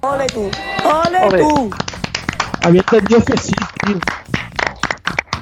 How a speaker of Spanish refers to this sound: Así que desde aquí, este aplauso va dedicado al CSIC, que está investigando a saco para salvarnos de esta.